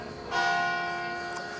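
A church bell beside a house strikes once, its bright metallic tone ringing out with rich harmonics and a long, sustained decay, with no voices present.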